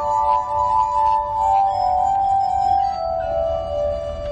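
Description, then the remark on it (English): Sustained, ringing tones of a glass harmonica played with wet fingers, its glasses turned on a metal rod by a large foot-driven spinning wheel. Several pure pitches overlap and glide smoothly from one to the next in a continuous, shimmering drone, with a low rumble underneath and no voices. “And then I'm using my foot to make all the glasses move at the same time. So I can play any glass I want.”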